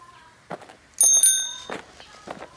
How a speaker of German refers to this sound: Hört ihr das? Die Fahrradklingel?